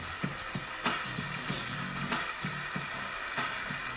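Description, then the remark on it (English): Steady applause from a small group at the conclusion of a Pusoy championship game fills the whole stretch, a dense crackle of claps with a few sharper, louder bursts standing out at irregular moments. No voices are heard. “And applause to finish off.”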